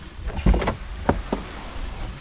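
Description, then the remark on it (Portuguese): A car door opens with a low thunk and a mechanical latch clack, followed by a couple of sharper clicks, fairly loud against a quiet background, as someone gets out of the car onto a muddy avenue. “Quando eu abri a porta para sair do carro, meu coturno afundou na lama.”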